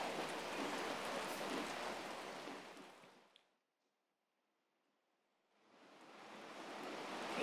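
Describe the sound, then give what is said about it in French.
Steady, dense rain hisses loudly and evenly, then fades out into a couple of seconds of near silence before swelling back in just as strongly. No voices. “C'est parti pour cette séance d'hypnose, au calme, bercé par la pluie, comme si vous y étiez.”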